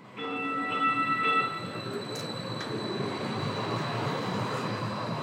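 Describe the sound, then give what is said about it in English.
A light rail train passes the stop beside the Rossonian: a loud, chord-like horn blast for just over a second, then a steady rumble of the moving train with a faint high whine above it. “We stood outside the wooden door next to the light rail stop.”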